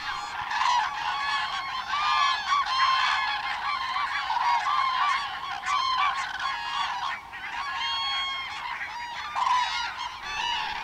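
A large flock of large migratory birds, ready to depart, calls continuously, a dense overlapping chorus of loud honking cries with no pauses, filling the whole stretch without any talking.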